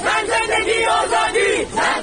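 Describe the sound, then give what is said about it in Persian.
A crowd of protesters in the streets of Iran chants loudly and steadily in unison, voices rising and falling in the repeated rhythmic slogan "Azadi! Zendegi, azadi!" (Freedom! Life, freedom!) that fills the whole two seconds, with no single speaker standing out. “در خیابان ها اما همچنان صدای اعتراض بلند است”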